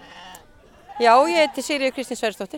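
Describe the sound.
A sheep gives a loud, quavering bleat at a sheep-sorting pen, followed by a woman speaking briefly, with faint bleating and pen noise in the background.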